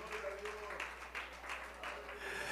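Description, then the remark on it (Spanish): An audience at a church service, standing and applauding in worship, a steady wash of clapping with soft, rhythmic surges, and voices murmuring underneath throughout. “Y si usted tiene esta misma meta conmigo, póngase de pie, eleve su voz, aplauda su presencia, cierre sus ojos y dígale al Señor, Señor, yo tengo esa misma meta en esta hora.”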